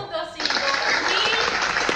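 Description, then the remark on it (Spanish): After a brief quiet lead-in, a burst of crowd applause kicks in and continues steadily, a dense, bright wash of many hands clapping at once, fairly loud. “Un aplauso, se pone un aplauso ahí, igual.”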